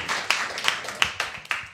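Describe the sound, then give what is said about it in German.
A small group claps after a point is awarded, with several sharp, loud hand claps standing out over a steady wash of quicker, softer clapping for under two seconds. No one speaks. “Klatscht ruhig bei jedem Punkt und bei mir nicht.”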